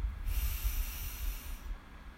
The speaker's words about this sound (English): Taking a deep breath in through your nose